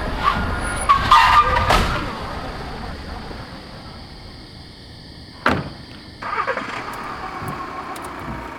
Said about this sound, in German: Gott sei Dank, ein Auto. Hey! Hey! Hilfe! Anhalten!